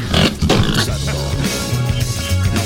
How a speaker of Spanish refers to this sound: Pero bueno, los juguetes ya no son lo que eran. Ahora un cerdo te gruñe si abres la nevera